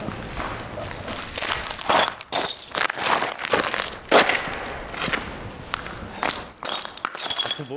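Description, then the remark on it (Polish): Broken glass crunching and grinding underfoot, a continuous gritty crackle with sharp clinks as footsteps press through shards, fairly loud, with no talking. “skrzy skrzytanie, to krupiące szkło.”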